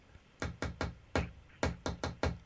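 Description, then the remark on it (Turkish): Sharp tapping of a pen on a hard surface: three quick taps, a pause, a single tap, then a faster run of four, forming a clear rhythmic pattern with no talking. “Bunu e, kaleminizle vurabilir misiniz?”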